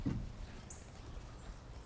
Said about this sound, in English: immediately there's a cardinal chipping 20 feet off to our left here. They have a really distinctive, sharp chip note.